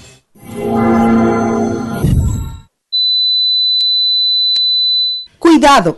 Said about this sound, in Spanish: si alguna vez ha escuchado estos ruidos, podría padecer de tinnitus. Este diagnóstico provocado por estrés, golpes o traumas interrumpe las actividades diarias de las personas.